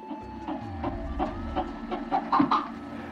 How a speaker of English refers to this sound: We're listening to the sounds of a red footed tortoise, one of many species whose population has been dwindling.